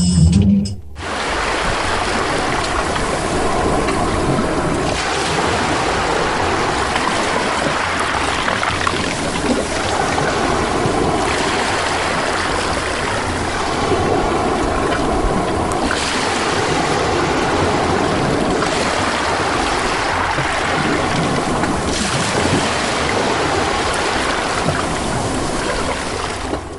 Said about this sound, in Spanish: Psicosis, mar chileno. Las olas chocan con la tierra. El mundo de las tinieblas sopla las olas.